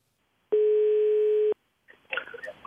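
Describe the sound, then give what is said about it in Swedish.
A single steady electronic ringback tone of an outgoing phone call to the Snellman meat-processing company in Jakobstad sounds clearly for about a second, then stops; after a short pause comes faint rustling and clatter on the line. “Vi ska ringa upp Antti Koivukangas som jobbar som kommunikatör på Snellman”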